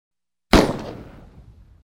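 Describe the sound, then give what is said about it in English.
A single sharp starting pistol shot starts a skating race of five skaters, cracking out after a moment of silence, loud, its echo ringing and fading over about a second. No voices. “The gunshot sounded and they started.”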